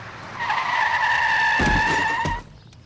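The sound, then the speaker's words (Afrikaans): A car's tires squeal in a loud, sustained skid lasting about two seconds as it hits a small monkey that stepped off the sidewalk, with a couple of sharp impact thuds near the end before the sound abruptly cuts off. “Maar omdat Bessie nie kyk waar sy loop nie, tref 'n kar haar.”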